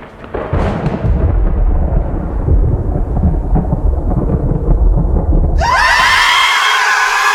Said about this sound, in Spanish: Antes de que el Mac forastero pueda responder, la enorme confluencia de transmisión de luz datos, potenciada por miles de palitos que hacen de antenas, provoca una gigantesca descarga eléctrica del tormentón sobre todos los presentes.